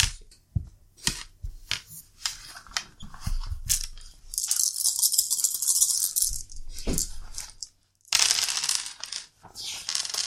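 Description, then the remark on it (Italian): Sharp clicks, then a sustained rattle of dice shaken in a hand or cup, followed by a bright clatter as they tumble across a hard surface, rolled during a board game to move into a new room. No one speaks. “Uh, devi tirare i dadi perché siamo per entrare nella nuova 5.”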